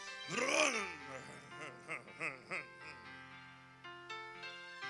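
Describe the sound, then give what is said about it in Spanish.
A man vocally imitates a big, powerful car engine revving, with a loud rising-and-falling roar at first, then several shorter growling pulses, followed by a steady droning hum. “Cuando usted le enseña la llave, comienza a roncar.”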